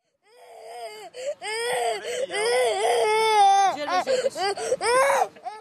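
A child cries loudly on a packed, hot and humid bus at a rest stop in Serbia, where refugees and migrants wait for transport north. The crying comes in rising wails and whimpering sobs in uneven bursts with brief catches of breath, over a faint murmur of the crowd.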